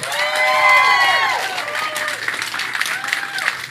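An audience of believers in Jesus Christ bursts into loud, sustained clapping for him, mixed with rising cheers and whoops, the applause continuing steadily for several seconds before easing slightly toward the end.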